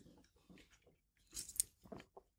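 A small sip of a drink: quiet wet mouth noises, a brief slurp and swallow with a few soft clicks, and no talking.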